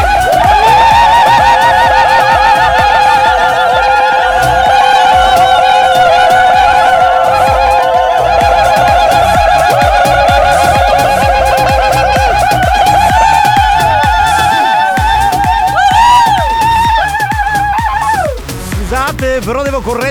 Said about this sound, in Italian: Facciamo il primo urlo ufficiale della stagione! Siamo tornati!